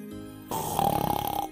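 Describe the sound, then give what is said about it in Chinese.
A short, rattling snore: a soft breathy onset, then a rapid fluttering buzz with a steady nasal tone that pulses quickly for about a second before cutting off. “呼噜呼噜，大家睡得好香啊！”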